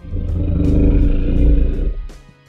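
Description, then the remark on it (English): A little girl makes a weird, guttural growling noise, a low rumbling snarl held for about two seconds before it trails off, with no talking over it. “And then little girl made some weird guttural growling noise that sounded like.”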